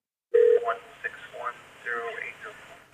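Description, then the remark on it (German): A single short steady telephone tone sounds as a return call from a detective of the Mesa, Arizona Police Department connects, then muffled, narrow phone-line voices begin talking over a faint hiss. “wir hören jetzt mal gemeinsam in das Telefonat rein, wo … mit dem Detective spricht”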